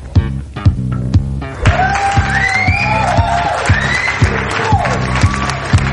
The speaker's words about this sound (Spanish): Bueno, y vamos a darle ese premio, ese premio al equipo A, que con tres puntos se ha colocado por delante. El premio es este aplauso.